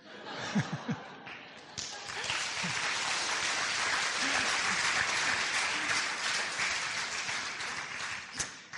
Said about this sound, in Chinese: 我不知道大家拍手是什么意思。